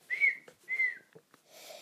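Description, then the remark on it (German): Two short, bright human whistles, each a steady note that slides slightly downward, with a brief pause between them, followed by a soft breathy rustle; fairly loud. A person whistles in their room to call for a missing recorder. “Ich habe in meinem ganzen Zimmer gesucht, sogar nach ihr gerufen habe ich und gepfiffen.”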